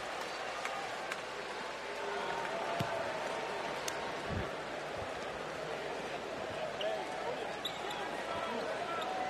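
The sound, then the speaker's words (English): A basketball is dribbled on a hardwood court, a few scattered thumping bounces half-buried under a steady roar of arena crowd noise, with voices faintly in the mix, as the Clippers dribble out the clock against the Warriors. “Clippers dribbling it out.”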